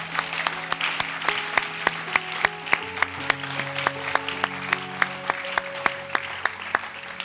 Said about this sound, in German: Geben wir ihnen mal einen riesen Applaus, dass sie da sind.